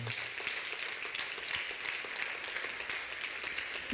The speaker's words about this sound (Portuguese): Pode aplaudir o Senhor.